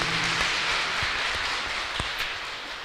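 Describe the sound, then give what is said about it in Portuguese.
A group of people applauds steadily for a few seconds for a prize winner, a dense, even wash of clapping at moderate volume with a few sharper claps standing out and no talking. “Uma salva de palmas”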